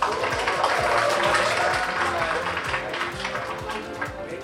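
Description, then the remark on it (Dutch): A crowd applauds steadily, many hands clapping in a dense, continuous wash that fades slightly toward the end, with a murmur of voices underneath. “Zo ook even applaus voor jezelf.”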